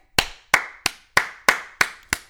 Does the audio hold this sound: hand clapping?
yes